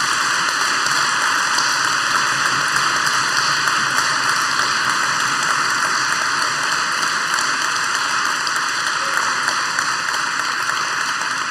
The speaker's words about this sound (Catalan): aplaudiu-vos a vosaltres, eh, que el mèrit és vostre, no, no pas de la Generalitat, sinó de la, de la Vila de Sitges.